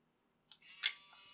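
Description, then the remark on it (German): An instant camera's shutter snaps once with a sharp, bright click as a flash photo is taken, followed by a short whirring hum as the instant photo feeds out. Fairly loud, with no talking. “Mhm sagt man Sofortbildkamera, oder? Sag ich ja, Sofortbildkamera.”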